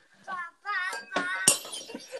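A glass shatters nearby with a sharp crash and a short burst of bright tinkling fragments, preceded by brief voice-like tones.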